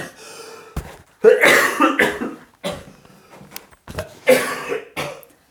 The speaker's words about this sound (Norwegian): Pappa hoster seg helt død.